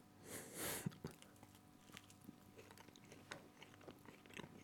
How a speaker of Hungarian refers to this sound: Azért, hogyha ezt most így elkezdjük enni adás közben, Kapunk, akkor nem fogunk veszteni egy pár hallgatót.